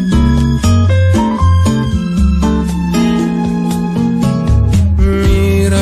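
A Brazilian bossa nova song intro plays loud and steady, with layered chords and a low, rolling bass line moving in a relaxed rhythm, no singing yet.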